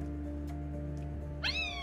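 A single short cat meow, fairly close and clear, rises and then falls near the end of a quiet stretch with only a steady low hum in the background.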